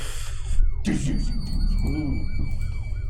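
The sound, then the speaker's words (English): The siren of a one-officer police car chasing a fleeing vehicle through a junkyard yelps in rapid, repeating rising-and-falling sweeps, loud, over a heavy low rumble like a speeding engine. “it seems like they're a little slow uh, in response but behind you there are still the, the flashing lights of a one officer car as it's chasing you”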